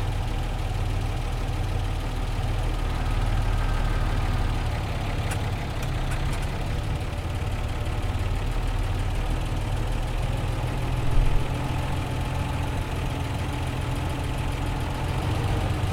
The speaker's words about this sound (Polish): Ręczny w dół. Tak jest. Jak jedynka. No już jest. Jedynka jedzie. Gaz czy na... Powoli, sprzęgło, trochę gazu. Zaraz się zacznie toczyć.